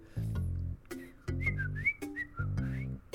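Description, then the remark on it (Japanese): A person whistles an imitation of a Chinese bamboo partridge call, said to sound like "chotto koi", repeating a three-part phrase of sliding, rising notes in a lively rhythm, fairly loud, with low voiced tones beneath. “これがあのちょっと濃いちょっと濃いに聞こえるらしいですよまあ聞こえるかどうか人によりますし正しい鳴き声が聞きたければ YouTube とかで調べた方がいいと思いますね”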